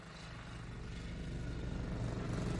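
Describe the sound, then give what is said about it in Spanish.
A motorcycle engine drones steadily along a road, its low rumble gradually growing louder over a few seconds with no voices present. “Una moto circula por la carretera.”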